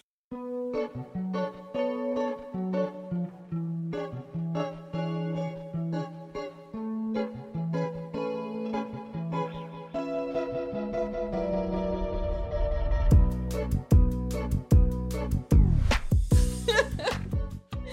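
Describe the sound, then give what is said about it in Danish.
A music track plays alone as a break: a steady melodic line over repeating notes, then shifts near the end into a denser, pulsing electronic section with heavy effects and a wash of high noise. “nu sætter jeg musik på, så kan vi få en snack.”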